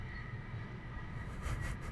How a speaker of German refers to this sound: Das ist der Zug. Das ist der Zug. Wir haben das Fenster offen, weil ja, es gesagt, sehr heiß ist.